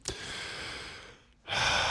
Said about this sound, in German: Atme erstmal tief durch